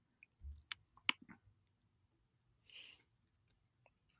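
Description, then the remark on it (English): A randomizer wheel clicks as it is spun to shuffle and pick numbers, giving a handful of sharp, irregular ticks and a short soft whoosh, fairly quiet, with no talking. “Spinning around, spinning around.”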